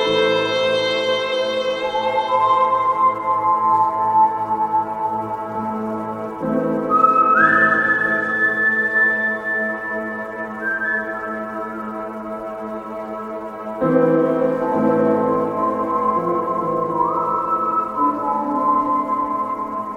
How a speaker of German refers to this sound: Und das war der erste Spiele-Soundtrack, den, den ich mir dann tatsächlich gekauft habe.